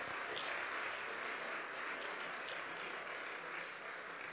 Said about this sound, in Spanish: Denle un aplauso a Dios. Venga, ponga la alegría.